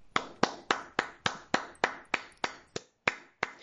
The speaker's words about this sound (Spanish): Ya, ahora, ahora aplaude.